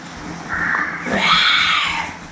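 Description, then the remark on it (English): A 16-month-old girl lets out a high, raspy roar, imitating a lion with one drawn-out growling squeal that swells and rises in pitch. It is loud, with no talking. “What does a lion say?”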